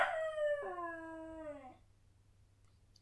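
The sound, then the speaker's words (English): A hunting dog that has fallen through the cover of a pit trap lets out one loud howl that slides downward in pitch and breaks off after nearly two seconds, leaving only a faint low hum. “Your Burmese tiger pit has claimed one of my best dogs.”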